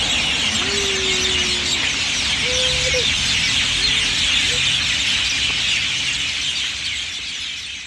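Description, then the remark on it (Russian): A loud, dense evening chorus of many birds singing and chattering at once, a continuous wall of overlapping calls, with a few lower drawn-out calls surfacing briefly. “Тут птицы вечером, я не знаю, у них какой, какая-то перекличка была, перепевка, а они тут так сильно пели”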